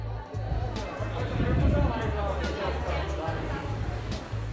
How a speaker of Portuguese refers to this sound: Os ruídos da multidão, o vento que sopra forte